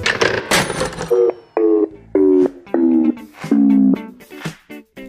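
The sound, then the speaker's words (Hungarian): A smartphone on its charger beeps five times in a steady, evenly spaced rhythm, each a loud, harmonic-rich electronic tone of about half a second, preceded by brief handling clatter. “Az lesz a legjobb, ha lehúzom a töltőről lesz az okos telefon, mert nem fogja abba hagyni.”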